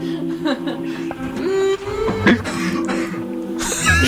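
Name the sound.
coughing and throat clearing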